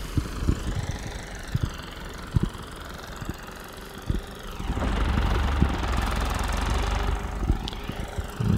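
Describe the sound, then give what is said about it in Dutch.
A tractor with a trailer idles with a steady, knocking rumble, its low throb swelling louder midway as it revs and maneuvers slowly while being parked beside a barn on wheels, then settling back down; no one speaks. “parkeert haar eh, trekker met aanhanger.”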